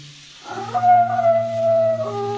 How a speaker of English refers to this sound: Hear them? Coyotes. It's a lullaby you sleep to in San Amado, if you can sleep.